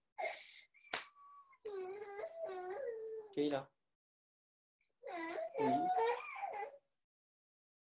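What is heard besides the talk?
little girl crying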